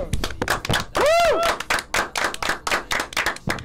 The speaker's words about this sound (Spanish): Vamos a aplaudir, vamos a aplaudir.